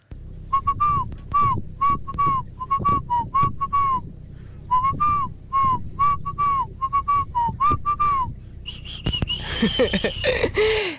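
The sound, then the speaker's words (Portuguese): Someone whistles a song melody on a Rádio Comercial morning show, a steady run of short, bright notes in phrases for about eight seconds, then breaks off into breathy laughter and noise. “Eu esta hora não consigo assobiar.”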